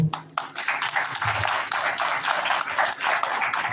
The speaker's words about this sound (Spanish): Y pues un fuerte aplauso, por favor.